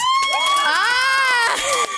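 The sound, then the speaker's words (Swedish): An audience cheers loudly when asked for loud applause with a chance of getting a prize, several high-pitched voices screaming and whooping in rising and falling tones over a steady wash of noise that may include clapping, lasting about two seconds. “så är det någon som vill ge en applåd ashögt nu så kanske ni får något.”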